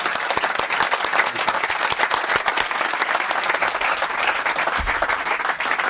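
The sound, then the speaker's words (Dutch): Sustained audience applause fills the whole stretch, a dense, steady patter of many hands clapping at even loudness, with no one speaking over it. “Applaus.”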